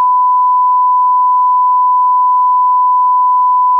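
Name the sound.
censor bleep tone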